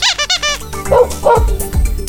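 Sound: dog barking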